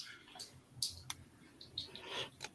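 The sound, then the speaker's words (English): A few sharp plastic clicks and snaps as Lego bricks are pulled apart while being dismantled, irregularly spaced with soft rustling handling noise between them, fairly quiet, with no one talking. “Sorry, pretty, I'm uh, dismantling some of my Lego. Sorry, that's why I paused.”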